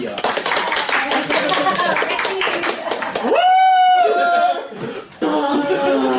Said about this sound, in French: qu'on peut applaudir